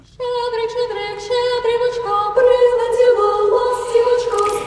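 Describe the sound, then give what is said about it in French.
A choir sings the Christmas carol Carol of the Bells in Ukrainian, in sustained, harmonized chords that shift every second or so. The singing is full and steady, with no one talking over it. “Et c'est le son des cloches ou Carol of the Bells en anglais, car c'est un chant de Noël très populaire dans le monde anglo-saxon.”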